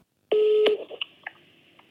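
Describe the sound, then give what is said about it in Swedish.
Telephone dialing tones of a call to the boss at Ahus: a steady electronic tone lasting about half a second, followed by several short, crisp keypad beeps at uneven intervals, heard alone. “Men eh, jag hade ändå en telefonare med chefen där på Ahus och det lät så här.”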